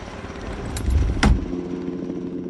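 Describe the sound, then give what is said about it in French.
A small helicopter's engine and rotor drone, swelling louder with a couple of sharp whooshing bursts as it lifts off and gains altitude, then settling into a steady hum. “L'hélicoptère prend de l'altitude.”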